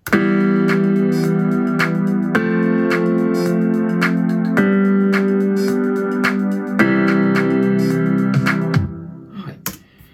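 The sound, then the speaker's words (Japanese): A synthesizer keyboard phrase, its notes quantized to sixteenth notes, plays back with tightly even, grid-like note timing. Because the keys were pressed with different force, the notes vary between strong and weak. Sustained chord layers with sharp repeated attacks, loud, alone without talk, ending in a brief scattered tail. “で、鍵盤を押す力がそれぞれ違うのでなんか、強かったり弱かったりそうですねでもこのピアノとも違うこのシンセの鍵盤の強さを一定にするの難しいですよね”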